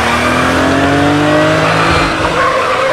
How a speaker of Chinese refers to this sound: 停车场里，律师花重金办理完停车手续，还在感叹出门没啥黄历。果然诸事不顺的时候，瑞恩再一次一脚油门开走他的车。